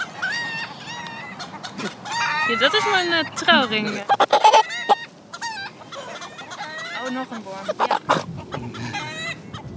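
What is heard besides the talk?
chickens clucking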